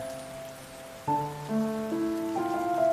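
Steady rain hisses throughout, a dense, even wash of falling drops, while soft sustained musical notes enter one after another over it.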